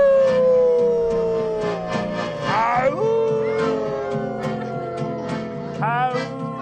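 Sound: children imitating wolf howls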